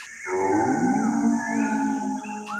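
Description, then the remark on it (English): A human voice mimics an eerie, non-human screech: one loud, drawn-out wailing cry, its pitch bending and sliding for about two and a half seconds. “But it's like a really eerie, non human screech.”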